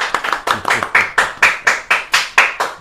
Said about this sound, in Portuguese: Palmas, né, galera? Muito obrigado.